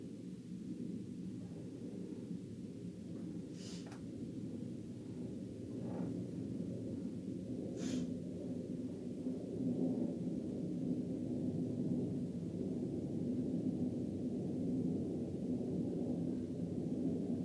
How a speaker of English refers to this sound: Um, helicopter. Hold up.